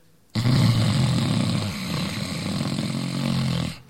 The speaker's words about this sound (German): In der einfachen Variation atmet ihr schnarchend ein, indem ihr praktisch die weichen Teil des Gaumens zum Vibrieren bringt.